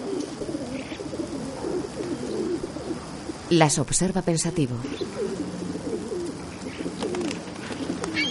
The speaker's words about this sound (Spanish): En la azotea revolotean varias palomas.